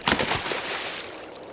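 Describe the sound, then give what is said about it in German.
A single sharp splash as the bird Puffel plunges beak first into water and dives under, loud, then fading into a brief frothy wash of disturbed water with no voices. “Der Puffel ist ins Wasser hineingekumpelt und abtaucht.”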